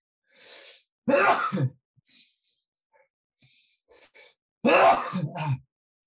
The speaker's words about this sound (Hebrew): שנייה, יש לי אפצ'י.